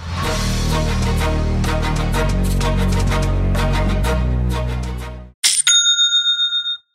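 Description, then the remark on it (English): A cash register bell rings out once, bright, with a short ringing tail and a clunk of the cash drawer opening, signalling a sale, right after a stretch of loud music cuts off. “you get that bell sound and the cash drawer opens up.”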